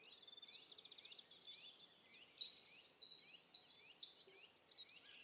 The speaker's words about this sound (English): This song's all about birds. so let's sing with the birds.